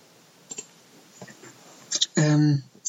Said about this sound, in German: tut mir leid, ihr müsst jetzt die ganze Zeit mein Klicken hören, wenn ich klicke. Ich versuche es irgendwie zu vermeiden.